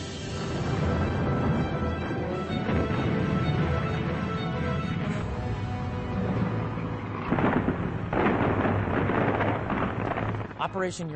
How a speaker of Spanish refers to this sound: la mañana del 19 de noviembre las tropas alemanas oyen cañonazos distantes procedentes del noroeste y del sur. Esos cañones anuncian el inicio de la contraofensiva soviética.